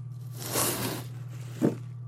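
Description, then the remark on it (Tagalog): A cardboard box of office supplies on a stockroom floor is opened with a rough rustling scrape, followed by a short crunchy snap, over a faint steady hum. “Binuksan ko ang unang kahon na nasa sahig.”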